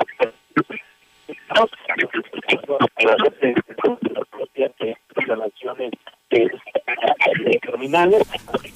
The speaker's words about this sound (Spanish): Estamos perdiendo la, el contacto, …. Algo está sucediendo ahí con tu teléfono.